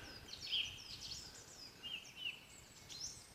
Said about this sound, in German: Die Vögel singen hier. Da kommen wir gleich noch drauf, äh, äh, was sie hier alles so machen.